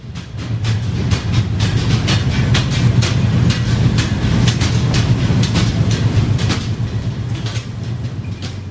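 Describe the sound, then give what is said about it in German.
Heavy coal mining machinery runs loudly in a mine at Svea Gruva, extracting coal: a steady low droning rumble overlaid with rapid, irregular metallic clattering and rattling, with no voices. “Seit ein paar Monaten laufen aber die Maschine wieder und jetzt wird für mehrere Millionen Franken am Tag Kohlen abgebaut.”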